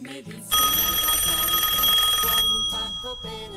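A telephone rings with a loud, bright electronic trill, a steady high-pitched warble lasting about two seconds before cutting off, with faint background music underneath. It is an incoming listener call on a Radio Poliguita broadcast, the last call of the show.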